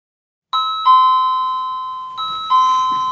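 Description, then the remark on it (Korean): An electronic doorbell at the front door of a one-room apartment chimes twice at night in a ding-dong pattern, each pair of clear tones ringing out and slowly fading, fairly loud with no voices. “현관벨 소리에 눈을 뜬다.”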